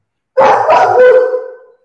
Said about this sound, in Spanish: Este, mi perro está ladrando. Quiere opinar también. No quiere, quiere ir a. Ah, quiere a hacer sus necesidades.